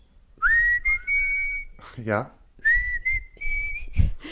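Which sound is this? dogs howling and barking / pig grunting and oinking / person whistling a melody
person whistling a melody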